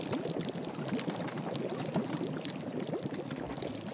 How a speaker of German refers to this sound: Ein großer Kessel steht auf dem Feuer. Etwas blubbert darin vor sich hin. Wie appetitlich es doch riecht.